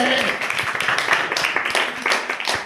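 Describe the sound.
A crowd applauds steadily, many hands clapping at once in a dense, continuous patter that stays fairly loud throughout, with a faint murmur of voices underneath.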